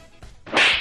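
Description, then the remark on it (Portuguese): A single sharp, loud slap sound effect, preceded by a brief swishing lead-in and ending in a bright, crackling burst with no voices around it. “Tomei um slap de graça assim?”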